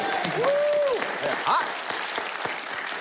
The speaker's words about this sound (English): Welcome back, everybody, and let's give a great big hand to my favorite band in the whole world,